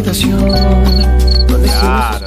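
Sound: crickets chirping sound effect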